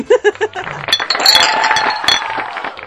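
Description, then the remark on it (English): Beer glasses clink together in a quick cluster of bright chimes in a toast, ringing out over voices and laughter that carry on throughout. “okay, cheers. Don't do that again.”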